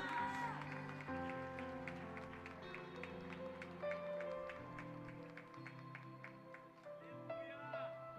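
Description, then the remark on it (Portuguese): An audience applauds for God in steady, rhythmic claps over sustained music with held keyboard-like tones, the crowd sound at moderate loudness. “É só glorificar o nome de Deus por isso e uma salva de palmas para Deus, porque Ele é maravilhoso.”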